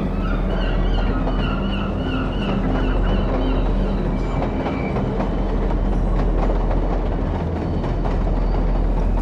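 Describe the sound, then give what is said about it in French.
Heavy rail traffic rumbles loudly and continuously, with wagons clattering and deep engine drone filling a busy industrial soundscape as trucks and trains arrive and leave at a port entrance, carrying grain, citrus fruit and timber. No one speaks. “À l'entrée du port arrivent et partent des camions et des trains, céréales, agrumes, bois.”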